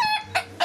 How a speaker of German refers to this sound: Das ist ein russischer Hahn. Das ist ein Huhn. Of Russia. Der klingt ein bisschen, bisschen, so ein bisschen angetrunken, oder?